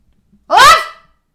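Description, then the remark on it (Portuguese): A single short bark from a dog that has just woken up, loud, lasting about half a second with a rising then falling pitch, surrounded by silence. “Pronto, acordou.”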